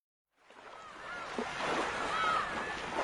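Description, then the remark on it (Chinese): Steady surf washes over a beach, a continuous rushing hiss, while several seagulls circling and foraging for food call out above it in short, rising, squealing cries. No one speaks. “海浪正拍打着沙滩，海鸥正在盘旋觅食呢。”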